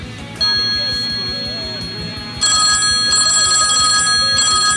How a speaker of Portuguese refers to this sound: O telefone tá tocando aqui.